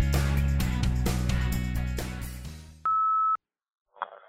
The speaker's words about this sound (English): Now it's your turn to speak at the beep.